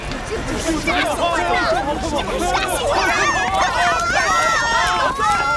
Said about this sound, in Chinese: 动物们纷纷跑到小区外的安全位置。